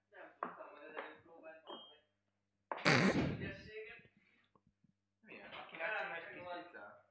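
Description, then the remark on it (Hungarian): A loud thud of a door being shut cuts in abruptly between stretches of people talking, with a brief rattle trailing off after the impact. “közben nagyon hősiesen megoldotta az ajtó kérdését.”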